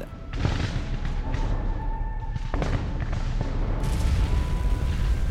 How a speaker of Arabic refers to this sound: ساعه بعد ساعه مع دوي الانفجارات باستمرار في اذنيه